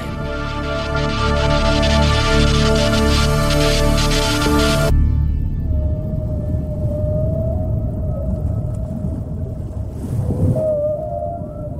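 Underwater recording of whale calls made with deep-sea hydrophones of a former military acoustic detection system under the North Atlantic: a dense mechanical drone cuts off, leaving deep ocean rumble with thin, drawn-out tonal calls and a brief rising sweep near the end.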